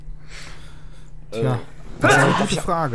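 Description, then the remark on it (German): A sudden sneeze bursts out in the middle of a man's speech, sharp and loud against the talking around it. “Gesundheit.”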